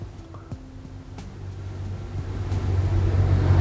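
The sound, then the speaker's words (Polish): A car engine drones with a low, steady rumble that builds gradually in loudness as it tows another car on a rope, with no voices. “Ali znowu ciągnie nas na tym powrozie”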